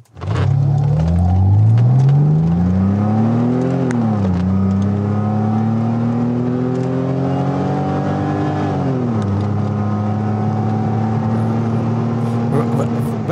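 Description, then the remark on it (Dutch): A six-cylinder AMG 3.2 engine fitted in a 190E 2.6 car revs up loudly, its pitch climbing through two long pulls with a brief dip between, then settling into a steady high drone. “Dat was eigenlijk een 190E 2.6. Dat was de, de 190 met een zescilinder. En daar werd dan door AMG een 3.2 motor ingelegd.”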